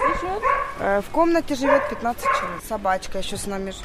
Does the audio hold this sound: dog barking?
yes